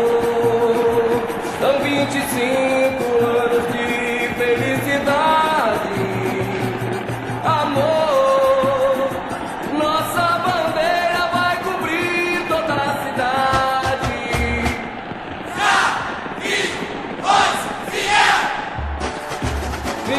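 A samba-enredo carnival song plays loud and continuous, a massed chorus of voices singing over steady percussion and deep bass pulses, with a lively, crowd-like energy throughout.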